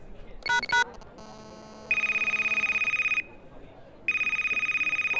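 A telephone rings on an outgoing call to the boss: a few quick dialing beeps, then two long bursts of high, rapidly trilling electronic ringing separated by a short pause, with no talking.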